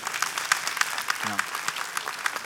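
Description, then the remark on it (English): Steady applause from an audience, a dense patter of many hands clapping at once, fairly loud and continuous, with a brief low voice briefly showing through partway. “You can't clap if you don't give.”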